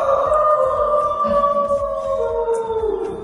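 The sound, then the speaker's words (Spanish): A long, sustained coyote-like howl on the rooftop of a colonial building in the city centre, holding a wavering tone that slowly sinks in pitch, fairly loud, with no one talking over it. “estamos en un edificio colonial en el centro y suena como que estuvo el hombre lobo acá arriba, ¿no? alguien tiene un coyote en la azotea.”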